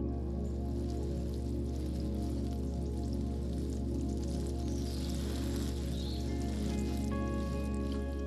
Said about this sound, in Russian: Поливает лунку водой.